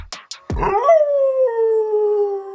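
A dog gives a long, drawn-out howl that rises briefly and then slowly slides down in pitch, preceded by a couple of short sharp yips. It is fairly loud, with no talking.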